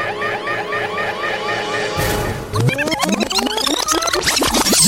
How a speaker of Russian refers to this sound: Кибермос, голубчик, перемотай-ка нам э, веков десять назад Вот на этом самом месте Запускаю машину времени Запускаю машину времени